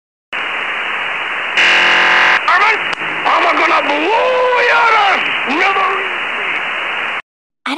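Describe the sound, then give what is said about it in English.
Over a hiss of radio static, a harsh, modem-like data burst screeches for about a second, then a man's voice talks over the crackly, band-limited transmission until it cuts off. “there's a data burst similar to what you would hear back in the dial up internet days when you would connect to the internet with a modem”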